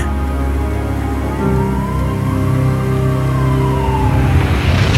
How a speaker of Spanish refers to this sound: La ambulancia se acerca al coche.